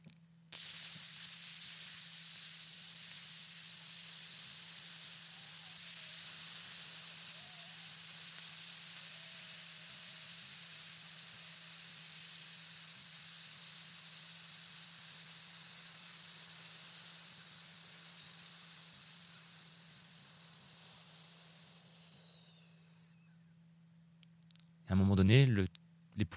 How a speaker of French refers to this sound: en laissant juste un tout petit filet d'air passer entre les dents